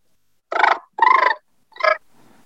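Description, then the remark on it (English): A person imitates a cat's purr by fluttering their lips, producing three short, buzzy voiced bursts with brief pauses between them. The bursts are fairly loud, and the last is the shortest. “There's a few different ways to purr, guys. Using your lips is not the way to do it. I mean, you can do it”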